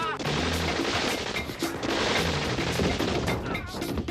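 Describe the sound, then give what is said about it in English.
Sustained machine gun fire from a drive-by shooting: a loud, dense barrage of rapid cracking shots that rattles on almost without pause for about four seconds, with a low rumbling undertone beneath the bursts. “It sounds like machine guns.”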